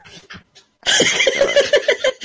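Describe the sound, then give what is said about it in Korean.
Heavy, rapid breathing right up against a microphone during a live broadcast, loud, from someone who has just exerted themselves, with a few short puffs at first and then a dense run of huffing, panting breaths. “숨소리 들리는 것 같은데 아닌가?”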